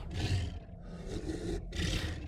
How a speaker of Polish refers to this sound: Stwór ciężko sapie. To wyjaśniałoby ten podmuch, który napotkaliście u wejścia do jaskini.